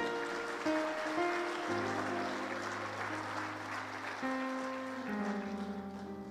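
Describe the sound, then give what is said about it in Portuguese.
An audience applauds with steady, dense clapping that fills the whole stretch, while sustained keyboard or organ chords play underneath and shift pitch a few times. “Então, pode aplaudir isso”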